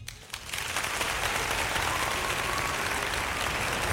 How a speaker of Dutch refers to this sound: natuurlijk applaus voor deze winnaar.